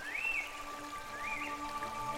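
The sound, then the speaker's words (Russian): A steady wash of rushing water from a little-known waterfall fills the scene with an even, constant roar, while two brief rising chirps, like a bird's call, rise above it. “Ведь существует поверье, что водопад очищает душу от тревог и всяческих злых помышлений – Нужно просто постоять около водопада, и он щедро поделится своей всепреодолевающей силой и тягой к жизни.”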